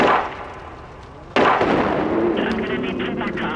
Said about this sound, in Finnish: Herranen aika, tilanne on sekava täällä Kappelin edessä. Juuri nyt jostakin kuului laukauksia